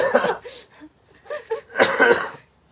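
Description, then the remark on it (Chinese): Three harsh, raspy coughs burst out in turn, the last one the loudest and longest, with short quiet gaps between them and no talking; the cougher has a bad cold and fever. “OK，可能听感有点不好，因为我就是大感冒、大发烧、 对我们两个都是 大咳嗽 病号”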